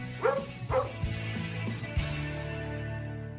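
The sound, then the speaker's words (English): A dog barks twice in quick succession, loud, followed by a few softer yips, while a steady musical tone hums underneath and rings on after the barking stops. “just go ask your dog.”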